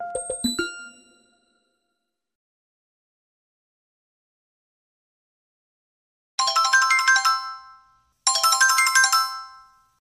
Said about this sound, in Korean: 전화벨이 울린다.